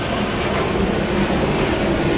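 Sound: airplane flying overhead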